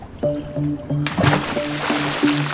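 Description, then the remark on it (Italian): A heavy suitcase slides off a boat and drops into water with a sudden splash, followed by steady sloshing, all over a low, rhythmically pulsing hum. “Intanto la valigia pesante scivola nell'acqua, sotto lo sguardo stranito del barcaiolo.”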